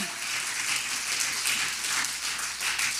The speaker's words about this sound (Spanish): Dios puede restituir el tiempo. Alguien tiene que darle un aplauso al Señor.